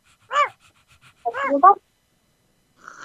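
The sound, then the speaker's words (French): Excited female dogs whimper in two short, high-pitched whiny bursts, the second a quick run of rising and falling yelps, followed by a faint tonal sound at the end. “Je pense qu'elles sont contentes parce qu'elles ont entendu que vous alliez venir demain pour les, pour les coiffer.”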